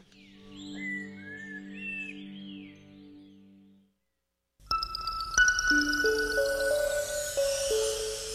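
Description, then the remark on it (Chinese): Quick, high bird chirps and tweets trill over a low, steady musical drone for a few seconds, then a short silence before bright chiming, bell-like tones and music take over, the opening jingle of the segment 自然大小事 (Nature, Big and Small). “风声、雨声、鸟鸣声，声声入耳。”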